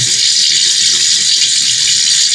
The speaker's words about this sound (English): Sorry, I'm doing my dishes right now, but I had some thoughts on my mind.